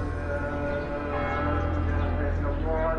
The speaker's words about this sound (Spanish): La cúpula dorada que protege la roca de Abraham es lo primero que llama la atención y solo el sonido de las campanas y de los almohacines revelan al viajero las numerosas iglesias y mezquitas.